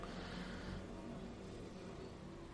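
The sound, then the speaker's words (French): Steady traffic noise with cars rolling past, a broad continuous rumble that swells slightly at the start and then settles into a constant wash of road sound. “Et puis là, il y a toutes les voitures qui passent.”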